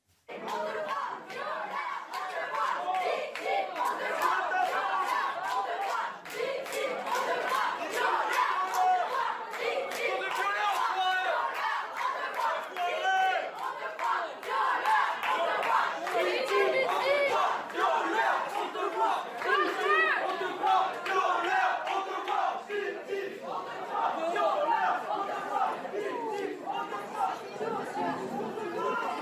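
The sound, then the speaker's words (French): A group of women, feminist activists, loudly chant the slogan 'écrivain violeur' (writer rapist) in unison, disrupting an author's talk about his latest book at the Mola bookshop in Bordeaux on a Saturday. Shouted voices are sustained for half a minute over a noisy, murmuring crowd. “Et des militantes féministes ont perturbé son intervention.”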